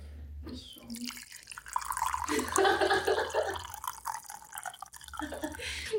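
Tea is poured into a cup, a steady splashing trickle lasting a few seconds whose pitch rises as the cup fills, then tapers off over a low background hum.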